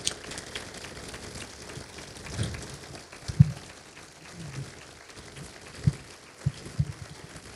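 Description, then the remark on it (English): A crowd gives a group of men and women another round of applause, clapping steadily for several seconds, a soft, dense patter of many hands clapping, with a few louder thumps scattered through it. No one speaks. “Let's give these uh, men and women another round of applause.”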